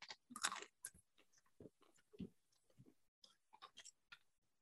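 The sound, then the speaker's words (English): Crisp crunching of a shelled snack being chewed, with about a dozen sharp bites and cracks in an irregular rhythm over several seconds, no talking. “Oh, I'll admit, that's pretty good. Crunchier than I was expecting.”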